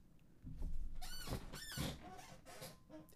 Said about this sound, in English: If you want to know what that sound was, that was me leaning back in my chair in like what the fuckness.